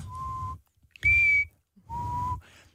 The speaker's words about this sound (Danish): Men du fløjter jo med læberne jo.